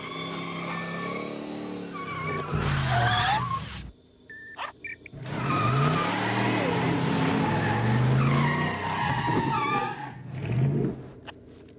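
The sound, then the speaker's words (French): A small remote-controlled toy car whines and revs, its pitch climbing as the tires squeal, in two long loud bursts separated by a brief pause with a few short clicks. “Et ce truc-là, ça sert à télécommander la voiture Attends, regarde.”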